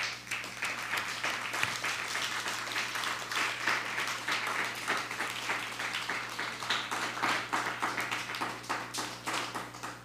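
A crowd applauds steadily for about ten seconds, a dense, even patter of many hands clapping with no speech over it, holding a constant level from start to finish.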